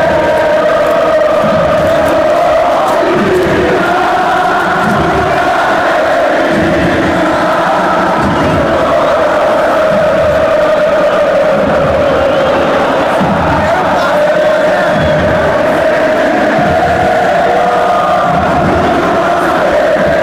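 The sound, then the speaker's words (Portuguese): Football supporters cheer and chant in a stadium in Porto Alegre, a loud, sustained roar of many voices with rhythmic surges and shouts running throughout. “Só a parte da torcida.”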